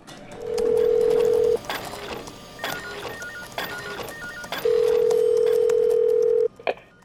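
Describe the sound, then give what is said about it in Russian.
A telephone call to a company rings out: two long, steady electronic tones separated by a pause, clear, followed by a brief click as the call connects. No one speaks. “Здравствуйте, вы дозвонились в компанию «Серебряная груша».”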